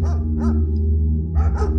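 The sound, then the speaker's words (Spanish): Several dogs bark in short, sharp bursts, a couple at the start and a flurry near the end, over a steady low rumble. “Así que herido y doliente acudió al jardín, secundado por sus perros que no paraban de saltar y ladrar.”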